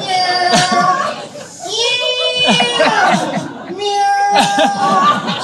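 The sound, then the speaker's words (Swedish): A person imitates a cat's meow in a high, drawn-out voice, repeated a few times with rising and falling pitch, fairly loud, amid lively chatter and a bit of laughter. “Så kommer katten fram. Mjau! Mjau!”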